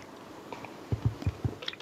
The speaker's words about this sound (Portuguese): Da hora caiu mais água na minha bochecha do que na minha boca.